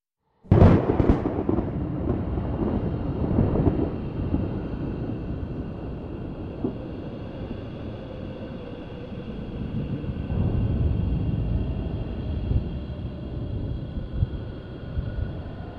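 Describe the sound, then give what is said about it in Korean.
A sharp crack of thunder bursts in, then a heavy, continuous rumble rolls on with roaring wind, a huge storm raging around a stranded boat. No voices. “어쨌든 천둥 소리와 함께 극도로 난폭해진 자연의 음향이 들려왔다.”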